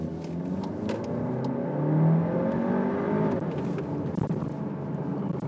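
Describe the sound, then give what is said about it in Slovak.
A car with its gearbox set to sport mode revs and accelerates with a steady, rising drone, and a single dull thump from the axle, not an exhaust backfire, cuts through late in the pull. No one speaks. “to bolo buchnutie nápravy, to nebolo strelenie do výfuku.”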